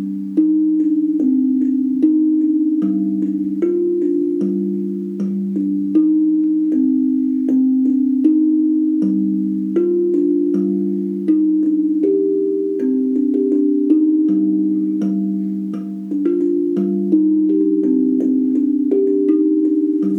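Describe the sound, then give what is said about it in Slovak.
A kigonky, a metal, UFO-shaped drum used as melodic percussion, plays a steady low-pitched pattern of struck tones with clicky attacks, repeating phrases that step between a few notes for the whole stretch, with no voices. “Volá sa to kigonky. Je to vlastne ako melodická perkusia a no má krásny zvuk Môžete si ho teda aj vypočuť.”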